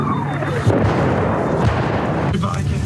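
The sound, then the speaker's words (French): Artillery shelling somewhat close by, behind and toward the left, with a couple of heavy, booming blasts that punch through a steady, loud rumble of low noise, the deep thuds arriving about a second apart. “C'est derrière que ça pète. C'est derrière et là, vers euh, la, à ta gauche.”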